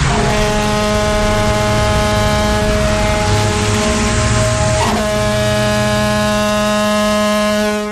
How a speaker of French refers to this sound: Et puis cet exercice va aussi permettre de tester l'alerte via les différentes sirènes. Ainsi, dans la matinée, les 16 sirènes du barrage de Bimont vont retentir. Il s'agit de la corne de brume.